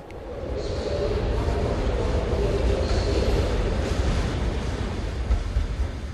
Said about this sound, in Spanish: Pero si pones atención, entrecierras los ojos y agudizas los sentidos, aún puedes escuchar el barullo de la vieja estación de ferrocarril de Buenavista.